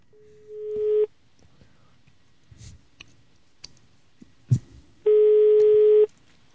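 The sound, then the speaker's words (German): Two steady, buzzing telephone tones, each lasting about a second, with faint clicks and taps of dialing in the quiet gap between them. No one speaks. “Wenn, wenn du das Telefon klingelt und, und du, so dich rüber guckst.”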